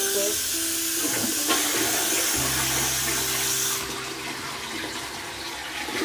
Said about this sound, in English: Here we go, we have to run some water.